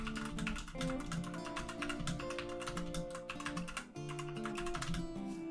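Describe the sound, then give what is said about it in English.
Loud, rapid clacking of a tactile, light-up keyboard with high-set keys being typed on hard and continuously for several seconds, over a steady tonal background with no talking. “Oh yeah, I've got the uh, smashy keyboard.”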